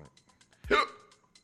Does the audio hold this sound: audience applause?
no